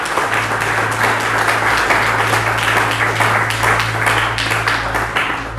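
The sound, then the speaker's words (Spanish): Loud, sustained applause from a large crowd, a dense wash of many hands clapping steadily throughout, with a low hum underneath and no clear speech; the crowd is applauding God in the morning. “Y pueden aplaudirle fuerte a nuestro Dios en esta mañana.”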